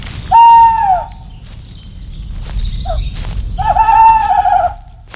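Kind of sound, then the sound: bird, owl hooting at night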